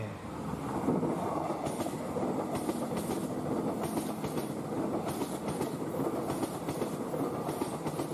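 The Airlangga passenger train, running from Pasar Senen to Surabaya Pasar Turi, rumbles steadily along the rails. Its wheels make repeated rhythmic clacks over the track joints beneath a continuous mechanical roar.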